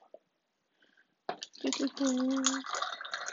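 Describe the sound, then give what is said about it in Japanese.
Hot tea is poured into a glass of ice, a steady splashing pour lasting about two seconds, with crackling and fizzing as the ice reacts, after a couple of faint clinks. “熱いお茶を氷で、氷にの入ったグラスに入れた音。”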